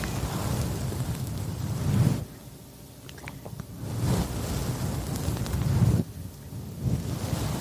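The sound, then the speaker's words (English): A paw rubs against a microphone, producing loud, rumbling whooshes that surge and fade like ocean waves, with two brief quieter lulls between the rushes. No one speaks. “I don't think it's the ocean. I think it's him rubbing that paw on”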